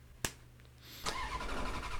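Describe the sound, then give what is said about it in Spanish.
A sharp click, then a car engine cranks and catches, roaring up loudly and revving, its pitch climbing as it settles into a steady throaty rumble. No one speaks. “Sin más, que arrancamos motores.”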